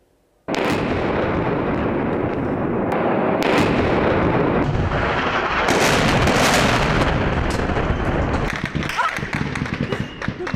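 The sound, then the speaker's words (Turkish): Rapid bursts of gunfire, fired on a crowd during the 15 July 2016 coup attempt in Turkey, crackle over a loud, chaotic crowd, with sharp repeated shots and shouting voices blending into a dense, continuous roar for several seconds. “Şu anda kalabalığın üzerine ateş açılıyor.”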